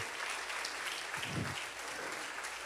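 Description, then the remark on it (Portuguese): A church audience claps steadily to applaud their king, God, a dense, even wash of many hands applauding with no gaps, sustained at a moderate level throughout with a faint voice briefly rising underneath. “Aplaude o teu rei, aplaude.”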